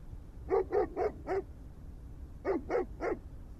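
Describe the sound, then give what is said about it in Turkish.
A dog belonging to the embassy barks in two quick bursts, four sharp barks, a short pause, then three more, clear over a low background hum, with no one talking. “Kime aitmiş bu köpek?”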